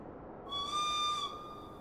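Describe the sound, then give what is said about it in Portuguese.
A single short, steady warning whistle signaling that train doors will close sounds clearly for under a second, a bright sustained tone rising above a low, constant background rumble, with no voices. “Um apito curto avisou de que fechariam em 10 minutos.”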